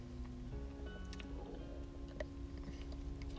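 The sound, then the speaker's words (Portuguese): Someone takes quiet sips of water, with soft gulps and small wet mouth clicks over a steady low background hum; nobody speaks. “Peço menos desculpa, estou a beber água.”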